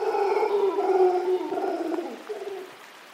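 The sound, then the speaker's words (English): A troop of golden-mantled howler monkeys, fairly large and mostly black, two to three feet long, call to each other across the cloud forest in the rain in Rincon de la Vieja National Park, northwest Costa Rica, in a long, droning chorus of overlapping roaring howls, carrying steadily before tapering off and fading near the end. “In the treetops, a troop of golden mantled howling monkeys calls to each other across the cloud forest.”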